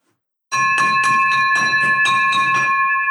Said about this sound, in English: We've got the victory bell, my man, ring in the background for Kevin Roberts for a huge, huge win.